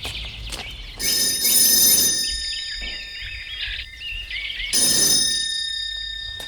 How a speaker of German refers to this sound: Na, ich klingel mal.